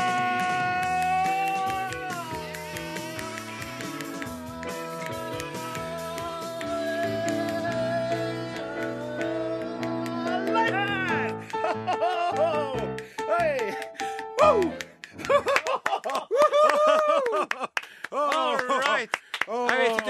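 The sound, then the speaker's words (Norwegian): Music with a singing voice and sustained tones, joined in the second half by sharp, loud finger snaps that crack out repeatedly and unevenly over the melody. “men der grova jeg fælt på knipsinga.”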